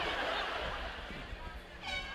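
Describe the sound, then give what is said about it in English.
Several boat air horns blare together over a wash of crowd noise and chatter, with a louder, sustained horn blast rising near the end. “I want to hear everybody's air horns.”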